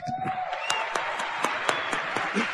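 An audience breaks into steady applause for two people present, many hands clapping in a dense, continuous patter with a few sharper claps standing out. A faint tone and murmur sit underneath.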